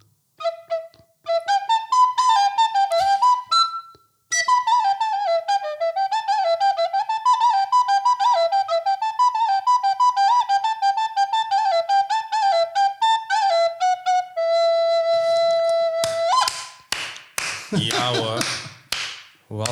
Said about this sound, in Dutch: heb ik een plastic blokfluitje voor de dag gehaald